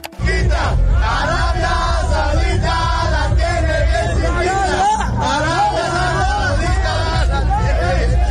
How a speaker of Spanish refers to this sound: ¿Y cuál creen que sea el nuevo grito de guerra? ¿Contra quién juega México? Contra Arabia Saudita. ¿Quieren saber cuál es el nuevo grito de guerra de los aficionados mexicanos en Qatar?